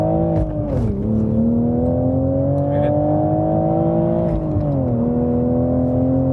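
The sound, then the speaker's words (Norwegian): A Toyota Supra sports car engine, driven in sport mode, hums steadily and pulls higher, its pitch dipping briefly at each of two quick manual gear changes before climbing again, heard from inside the cabin with no talking. “Så skal lytterne få litt uh, lyd. Du har den i sport, ikke sant?”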